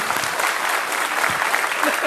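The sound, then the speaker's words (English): A large audience claps for an absent woman who is on vacation, in a dense, steady wash of applause that fills the whole stretch, with no single voice standing out above the crowd noise. “We'll pass along that you clap for her.”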